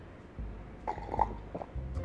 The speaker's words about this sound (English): excuse me i need to sip a little from my coffee